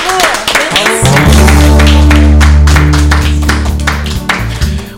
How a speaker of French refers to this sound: Allez, je pense qu'on peut applaudir